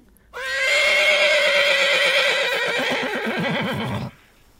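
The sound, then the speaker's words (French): A horse lets out a long, loud whinny lasting several seconds, with hoof clip-clops sounding underneath, before it cuts off abruptly. No one speaks. “Dès qu'on parle un peu trop de nous, Louis XIV et son cheval nous coupent la parole.”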